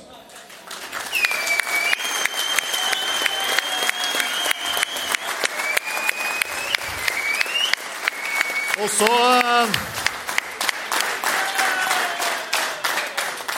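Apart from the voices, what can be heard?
audience applause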